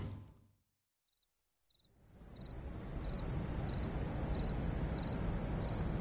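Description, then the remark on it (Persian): A dense, steady chorus of crickets trills continuously at night beside a railway track, with a high insect drone layered over regular pulsing chirps, all set against a broad rushing background noise that swells after a brief quiet start. “جیرجیرک ها آواز دست جمعیشون رو سر داده و محوت را روی سرشان گذاشته بودند.”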